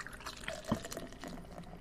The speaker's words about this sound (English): How in the fuck do you do that? I just lift up the bottle and pour it into the glass.